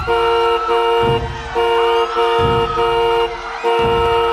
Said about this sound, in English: an open topped convertible limo, occupied by glamorously rich custard donuts, tries to honk its way through the crowd.